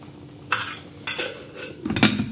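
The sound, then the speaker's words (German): A spoon scrapes and clinks against a metal soup pot in three short bursts of stirring after salt is added, moderately loud, with no talking. “Machen wir ein bisschen Salz rein.”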